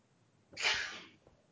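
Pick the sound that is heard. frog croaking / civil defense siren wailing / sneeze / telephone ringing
sneeze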